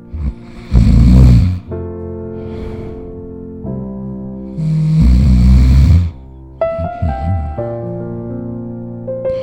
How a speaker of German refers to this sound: Und um halb neun sind sie langsam ins Zelt zum Schlafen. Schon nach einer kurzen Zeit hat mir der Papa gehört schnarchen wie ein Bär.